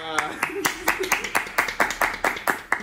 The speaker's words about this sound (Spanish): presentemos ahora, presentemos ahora a los miembros de este podcast quiero recibir con un fortísimo, para cambiar un poquito el orden, ¿no? Quiero recibir con un fortísimo aplauso con ustedes.